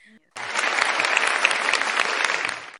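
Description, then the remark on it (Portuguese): A burst of applause from a group, dense and steady clapping that starts abruptly after a brief moment of quiet and continues at an even, fairly loud level. “traz as palmas”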